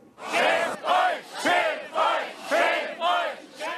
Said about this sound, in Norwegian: Skam dere, skam dere, roper demonstrantene i Erfurt. Mange av dem ofre for det østtyske kommunistregimet.